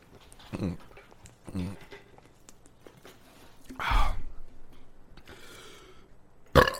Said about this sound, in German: Ah, das war ein ganz kleiner Fußballjung. Fußballjungs ist ganz laut rülpsen mit äh, mega Sprudelwasser in der Kabine.